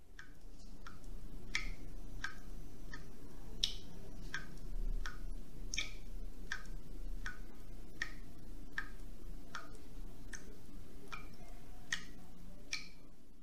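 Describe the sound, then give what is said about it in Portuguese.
Water drips in a steady rhythm, sharp little drops landing about twice a second for the whole stretch, each a bright, crisp tap over a low, constant background hum. No one speaks. “E por fim, vamos ouvir o barulhinho de uma gota d'água pingando.”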